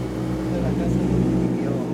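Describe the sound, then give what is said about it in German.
A boat engine drones steadily on a lake as the boat approaches the Villa Inalco, a constant low rumble with a throbbing hum that holds an even level throughout. “Wir nähern uns jetzt also auf dem See direkt der Villa Inalco,”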